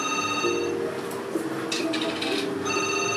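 The Renoir telephone rings steadily, its bright electronic tone repeating with short pauses. No one is talking over it.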